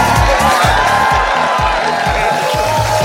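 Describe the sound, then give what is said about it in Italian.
An applause and cheering sound effect: a loud crowd cheers and applauds without letup, a dense wash of voices and clapping with a steady rhythmic thumping underneath, like a packed audience celebrating. “Metti un bel applauso, dice lei, sono felice e anche noi.”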